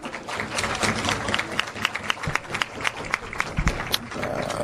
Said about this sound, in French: Bah, au fait, toutes les femmes ce soir, vous êtes des femmes en or. Euh, un coup d'applaudissement à toutes les femmes.